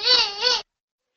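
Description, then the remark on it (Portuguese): A baby's voice babbles in two short, high-pitched vocal bursts, fairly loud, lasting about half a second before cutting off into silence. “Olha aí a … dando a opinião dela. Peraí que é. que ela é, vazando a … aqui. Mas nós gostamos de voz de bebê.”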